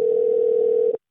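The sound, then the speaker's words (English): A steady, fairly loud telephone ringing tone sounds alone for about a second, holding one even pitch before cutting off abruptly. “It's ringing this week.”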